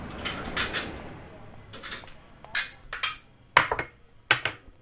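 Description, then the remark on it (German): Small glasses of Turkish chai clink against each other and a hard surface in a series of bright, sharp taps, some clustered, as a man makes the tea in the kitchen of a row house in Saarbrücken-Bübingen, Germany, with faint background kitchen noise throughout. “steht in der Küche, kocht türkischen Chai in kleinen Gläsern.”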